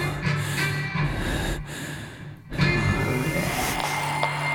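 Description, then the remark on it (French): Heavy, loud breathing, long noisy breaths with a couple of brief pauses between them, snorting and gasping in a tense, labored rhythm. No one speaks. “J'essaie de me calmer, mais plus j'y pense, plus ma respiration se fait forte.”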